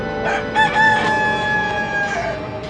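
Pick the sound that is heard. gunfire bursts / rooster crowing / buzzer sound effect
rooster crowing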